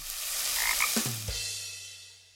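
A frog gives a few low, throaty croaks against a steady hiss of outdoor background noise, with no one talking.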